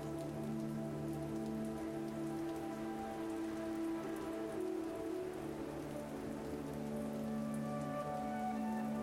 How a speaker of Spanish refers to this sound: Observa cómo la lluvia cambia a medida que cae. Desde la intensidad hasta la suavidad. Y como cada gota es única.